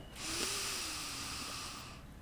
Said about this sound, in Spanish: pero antes de empezar se me antojó hacer una respiración nada más rápido. Vamos a soltar toda la tensión, inhalo profundo,